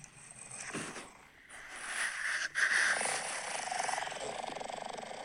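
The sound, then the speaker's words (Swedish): Someone snores, a raspy, rumbling breath that swells and fades, with a rapid fluttering rattle on each pull of air. No one speaks. “Ja, det är en snarkning.”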